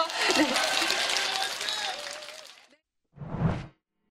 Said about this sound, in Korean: 여러분 박수 보내주십시오.